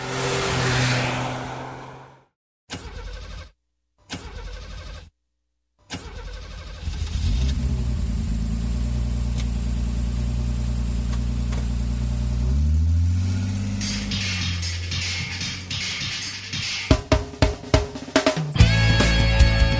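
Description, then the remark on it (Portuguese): A V8 car engine cranks in short bursts, catches and settles into a deep, throaty idle, then revs up with rising pitch before ending in sharp, crackling throttle blips. “E apertem os cintos porque nós vamos nos despedir na velocidade de 88 milhas por hora, entre outras velocidades icônicas do cinema. Com V8.”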